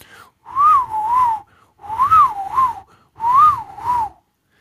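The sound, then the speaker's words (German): A person whistles three short bursts imitating dolphin calls, each a wavering, rising-and-falling trill with brief pauses between them, loud and without any talking. “Und ich kann das jetzt mal ganz kurz, also wenn jetzt zum Beispiel die Delfinfrau dem Delfinmann einen Einlauf verpasst, äh, weil er schon wieder die Socken äh, auf der Couch hat liegen lassen, dann hört sich das ungefähr so an.”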